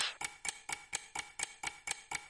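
Steady, clock-like ticking from inside a parcel: about ten sharp, evenly spaced ticks in quick succession, fairly quiet, with no voices or other sounds.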